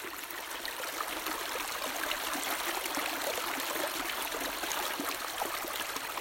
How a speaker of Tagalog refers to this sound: Yan ang ingay ng ilog, Mas maskandu tatay jaya do sabidug. And it's so beautiful and we're so very fortunate na uh, magandang agos ng tubig dito.